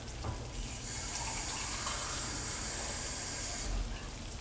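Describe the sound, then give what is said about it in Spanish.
The first cup of water is poured steadily into a hot pot of sautéed dry rice on raised heat, a bright rushing hiss lasting about three seconds before tapering off, fairly loud with no talking. “Aquí vamos colocando la primera taza de agua.”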